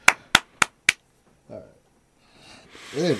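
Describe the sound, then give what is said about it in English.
Four crisp, sharp hand claps in a quick, even rhythm for a Happy Days joke, followed by a short vocal sound and then a burst of voice that rises at the end. “And Look a little bit of clapping for the Happy Days joke.”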